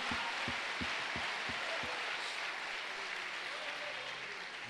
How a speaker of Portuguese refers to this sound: Give the Lord praise Dê uma salva de palmas ao Senhor Jesus.